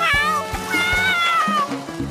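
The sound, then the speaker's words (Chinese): A baby jaguar, seemingly in trouble, cries in high, wavering mewls that slide downward in pitch, repeating over a steady, thumping musical beat underneath. “好像是美洲虎宝宝遇上麻烦了，我来了！”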